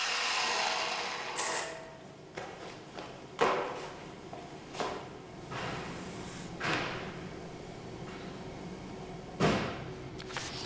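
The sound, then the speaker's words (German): Sanding a metal plate coated with a dirt-repellent nano liquid, to test whether sanding releases nanoparticles into the air: a steady gritty rasp with irregular louder scraping strokes every second or two, with no talking. “An den Kragen geht es hier der Metallplatte, die wir zuvor mit der schmutzabweisenden Nanoflüssigkeit behandelt haben. Wir wollen herausfinden, ob durch Schleifen Nanopartikel befreit werden und in die Luft gelangen.”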